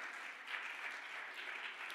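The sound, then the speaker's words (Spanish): Loud audience applause during a sermon, a dense, steady wash of many hands clapping at once with no breaks, sustained for the full two seconds with no voices. “¿Cuánto le un aplauso fuerte?”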